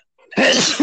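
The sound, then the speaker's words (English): A single loud sneeze bursts out suddenly, trailing into a brief voiced exclamation right after. “well, bless you.”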